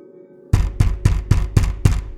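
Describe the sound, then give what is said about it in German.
Six loud, heavy knocks strike a bedroom door in a steady, even rhythm, booming, after a brief moment of low hum. “Es kam direkt von seiner Zimmertür. Jemand klopfte laut dagegen.”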